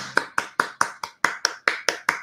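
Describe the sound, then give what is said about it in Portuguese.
A quick, steady burst of about ten sharp hand claps, evenly spaced and fairly loud, with no talking over them. “Palmas para você.”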